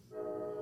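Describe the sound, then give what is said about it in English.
A train passing on tracks right next to a home gives off a steady, droning horn-like tone that swells in after a brief moment and holds at a moderate level, with no voices present. “Sorry about the train, That's you guys.”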